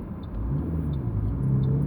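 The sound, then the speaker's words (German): Steady low engine rumble from inside a moving car on a cold, windy day of about 8 degrees, a continuous droning hum with a faint rising engine tone, fairly loud, with no talking. “Ich habe sogar eine Mütze im Auto auf.”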